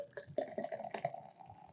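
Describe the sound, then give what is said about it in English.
Beer pours into a glass, a short burst of bubbly gurgling and splashing with a faint ringing tone, lasting under two seconds with no voices. “I'm showing off that head retention.”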